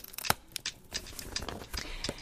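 Crisp cardboard handling: a sharp snap near the start followed by a run of scraping, creasing and flap-tucking sounds as a cardboard box is folded shut, with the sides pulled up, the front strip folded in, the sides folded out and the closing tab tucked in, with no voices.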